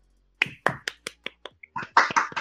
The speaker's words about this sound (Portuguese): Batam palmas, batam palmas.